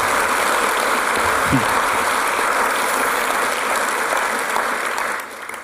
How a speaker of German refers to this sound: Ja, gebt doch der Listen auch einen Applaus.